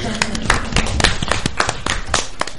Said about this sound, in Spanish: Un aplauso también, ¿no?